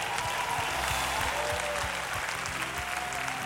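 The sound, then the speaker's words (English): An audience at a morning church service claps steadily and cheers in praise of the Lord, a dense, sustained wash of applause filling the room with scattered shouts rising over it. “And somebody give the Lord the best praise of the morning.”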